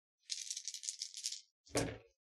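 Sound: dice being rolled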